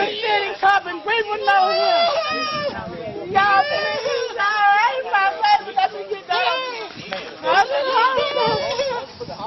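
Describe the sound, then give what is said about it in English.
Several overlapping voices of police and neighbours shout and call out at once, loud, forming a chaotic, agitated crowd clamor around a handcuffed man on the ground during a police arrest, recorded on a cell phone video; it continues without a break. “It's a kinetic scene with shouts and flashing blue police lights that are eventually turned off”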